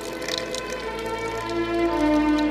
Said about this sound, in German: Das Wasser, das uns hier jetzt gleich weiterhin die Brunnenfrau Lisa Schleicher ausschenken wird.